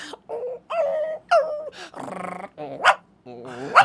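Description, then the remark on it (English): A person imitates a hurt dog, letting out a loud string of high whimpers, yelps and strained whines, each cry rising and breaking off in quick succession. “Also, why are you so good at dog sounds?”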